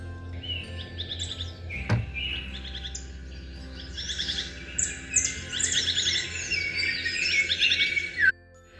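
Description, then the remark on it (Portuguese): A small white bird flying overhead chirps and twitters continuously in bright, high-pitched bursts, with a quick sharp click partway through and a low steady hum underneath. “O piar de um passarinho branco que voava sobre as cabeças, como querendo convidá-los a acordar, acordou-os.”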